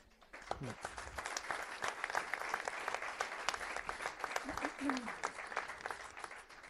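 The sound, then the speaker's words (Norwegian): An audience applauds steadily for several seconds at an evening gathering, a dense wash of many hands clapping at once, with a few brief voices or shouts rising through the noise. “Så synes jeg alle som eh, stiller opp for Viking, eh, heier gjennom tykt og tynt og gir alt for de mørkeblå på det, hva enn måte de kan, skal òg få en stor applaus her i kveld.”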